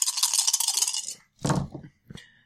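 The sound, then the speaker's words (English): Four dice are rolled for a final charge: they rattle briskly in a cup or hand for about a second, then tumble onto a hard table with a few sharp clattering knocks before settling. “Okay, so you can roll four dice in your final charge.”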